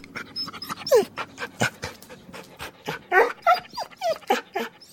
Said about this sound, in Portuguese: porque eu nunca maltratei ele, é um cachorro que era estimado da família.